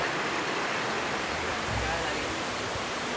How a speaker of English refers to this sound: So we've just come up to the Virgin Falls, they call them, which is a lovely, just a small waterfall on the river.